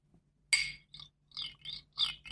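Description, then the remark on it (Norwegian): A butter knife scraped against a drinking glass: one sharp, bright scrape followed by four or five shorter squeaky strokes in an uneven rhythm, with no talking. “jeg tror jeg skal finne fram en kniv og et glass.”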